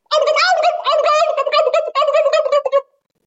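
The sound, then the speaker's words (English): A voice imitates a turkey, rapid gobbles rattling together in a fast, overlapping burst for about three seconds, loud, with no other talk. “and they start tripping on themselves. Yeah. That's when it starts happening.”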